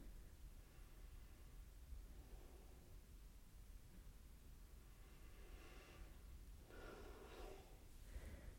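Soft, slow deep breaths drawn in and let out by a person standing in front of a mirror with eyes closed, quiet against a steady background hiss, with a few fuller exhales near the end and no talking.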